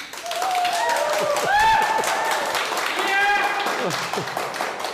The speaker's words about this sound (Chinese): 大家一起鼓掌。